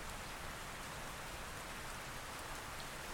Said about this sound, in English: Except we were in the fucking rain.